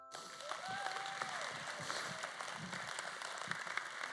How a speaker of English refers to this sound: Now, before I let y'all go, give him a hand clap.